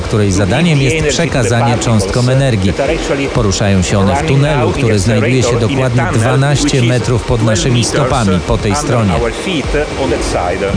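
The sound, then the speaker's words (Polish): A steady, metronome-like train of pulses from a particle accelerator ticks about once a second in the background, faint beneath a man talking continuously. Inside the accelerator's above-ground hall, the ion source forms a packet of protons every second, and each tick is capacitors discharging to give the particles energy. “skąd bierze się charakterystyczny, słyszalny w tle miarowy dźwięk, przypominający metronom”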